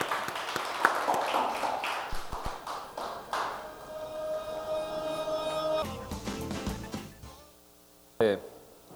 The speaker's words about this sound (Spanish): Dele el aplauso, déselo, déselo al Señor.